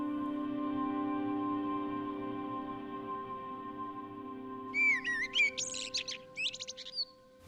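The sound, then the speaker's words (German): A steady low hum drones on, then after a few seconds a common blackbird sings a short run of fluting, warbling phrases ending in higher twittery notes, fairly clear. “Die Amseln sitzen gerne auf dem Dachfirst und da muss man sich dann schon etwas annähern.”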